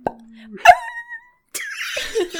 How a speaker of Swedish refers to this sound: Och det, det är ju hundljudet där